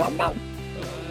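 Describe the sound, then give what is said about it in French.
Two quick, hoarse yelps from a real dog with a cold, fairly loud, in a song, followed by a softer, steady tonal hum that continues to the end. “Grâce à ce petit bruit de chien enrhumé.”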